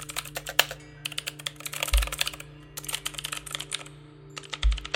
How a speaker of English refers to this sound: She simply enjoyed the manipulation of imagery she would lose herself at her computer for hours at a time, headphones plugged into her ears playing the latest core tracks, tapping and clicking on the keyboard as if she were born to do it.